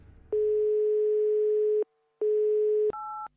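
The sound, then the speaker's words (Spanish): A telephone line tone after a hang-up: a long steady electronic hum, a brief gap, a shorter repeat, then a quick higher two-pitch beep. Clear, with no voices. “Oye, Javi, Javi, ¿qué más colgado?”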